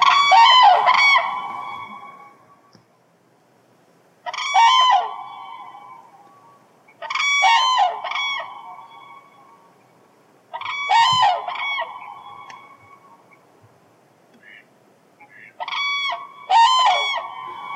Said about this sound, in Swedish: Det här är ju naturligtvis tranan. Och tranan är ju också en fågel som är väldigt viktig i folktron.